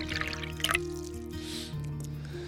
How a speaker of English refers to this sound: Work is done for the day. Pull up a chair, have a seat. I'll pour you a drink, and let's get started.